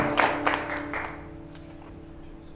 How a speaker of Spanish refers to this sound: ¿Cuántos le dan una ofrenda de palmas al rey? Amén.